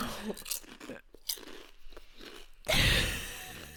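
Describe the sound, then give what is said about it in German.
Crackly crunching and rustling from a crisp bag being opened, in short bursts, then a loud, sustained burst of crinkling plastic near the end. No one speaks. “Ey, ich wette, du hast einfach aufgenommen und instantly the same second habe ich die Chipstüte geöffnet.”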